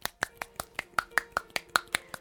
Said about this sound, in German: Keine Sorge, ich klatsche mir nicht ins Gesicht. Die, die bei mir schon mal zum Channel waren, wissen, ähm, ich boxe quasi mit der einen Faust äh, in die glatte Hand und dann genau andersrum und das in einem relativ schnellen Tempo.